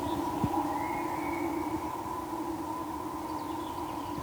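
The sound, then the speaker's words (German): The cable winch at a nearby gliding airfield drones steadily as it pulls a glider up, a sustained mechanical whine holding a constant pitch for the whole stretch, with no voices over it. “ich höre beispielsweise die Seilwinde der Segelflieger, die hier in der Nähe ist ein Segelflugplatz.”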